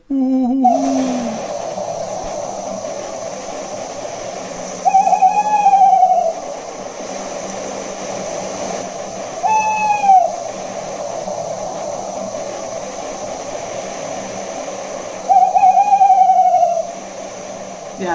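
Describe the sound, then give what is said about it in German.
A tawny owl's hooting song: three separate wavering, quavering hoots, each a few seconds apart, medium-pitched and fairly loud over a steady background hiss and low hum. “Es gibt auch Rufe, also ähm, so verschiedene, aber dieses, dieser Gesang ja, ich mache mal.”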